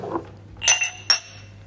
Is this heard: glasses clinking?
yes